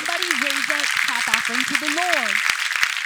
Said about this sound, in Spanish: Alguien levanta un aplauso fuerte al Señor.